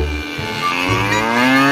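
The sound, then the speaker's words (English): Cows moo in a long, drawn-out bellow that rises slightly in pitch, loud, with overlapping low lowing underneath and no talking. “They earned their living by grazing cows.”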